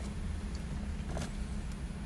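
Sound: inside a parked car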